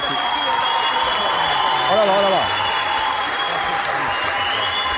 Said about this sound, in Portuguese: É uma salva de palmas pra produção antes desse trocar o take.